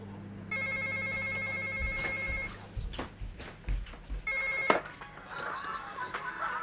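A telephone rings in two bursts, a steady high trilling bell lasting about two seconds each, with shuffling footsteps and rustling in between and afterward.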